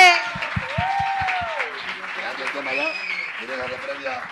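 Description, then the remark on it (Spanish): An audience claps in a quick, steady rhythm for about a second and a half while voices shout and whoop loudly over it, then the cheering and chatter carry on. “Porque folles en el 2022, un aplauso muy grande.”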